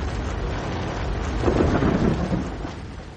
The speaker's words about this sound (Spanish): Ya van dos días de lluvia.